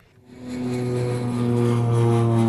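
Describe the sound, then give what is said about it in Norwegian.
A propeller airplane engine sound effect drones steadily, rising quickly from quiet to a loud, sustained hum with strong low tones, like a plane passing or taking off. “Kan vi få en, en flyjingle? Skal vi fly dit vi skal?”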